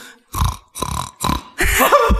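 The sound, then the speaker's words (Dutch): A person imitates a sow grunting while nursing piglets, the grunting a sow makes when giving milk: four low, throaty grunts in a steady rhythm, the last one longer and rougher. No words are spoken. “Of, dus, en als ik zie dat een zeug met biggetjes en als ze zogen, dan heb je een heel”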